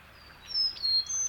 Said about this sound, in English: Moving closer to the river, I come across a Carolina chickadee sounding off near the top of a small tree.